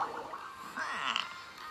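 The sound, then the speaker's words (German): A fart bubbling up through water: a short, wet, gurgling burble of bubbles, fairly loud, lasting under two seconds with no talking. “Und der hat gefurzt im Wasser.”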